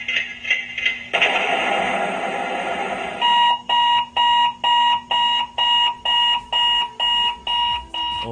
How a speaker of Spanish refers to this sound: Pero por favor, otra vez ese sonido. Es el despertador. Probablemente te haya pasado a ti alguna vez oír el despertador y no poder o querer levantarte.